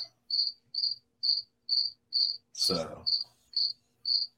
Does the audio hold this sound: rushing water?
no